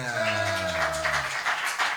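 An audience applauds a band on stage with a steady wash of overlapping claps, while a sustained musical chord rings underneath and fades out during the first second.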